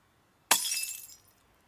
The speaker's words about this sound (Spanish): El contenido del vaso se terminó al segundo trago, y con el sonido del vaso estrellándose sobre el pavimento.